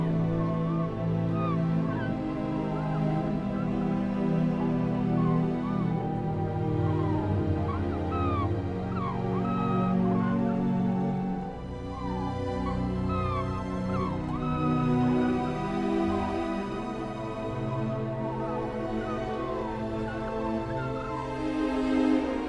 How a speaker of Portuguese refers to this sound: Em vez de escrever uma mais convencional cantata para o coro e orquestra, escrevi um concerto para pássaros e orquestra. O som dos pássaros foi gravado no Círculo Ártico, nos pântanos da Liminka, no norte da Finlândia.